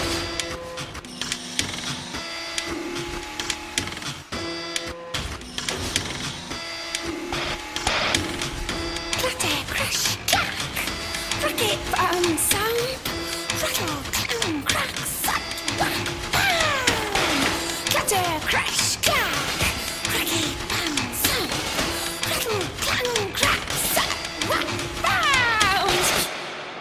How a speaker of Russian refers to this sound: все эти звуки завода, в котором она работает, вот эта мигрантка в Америке.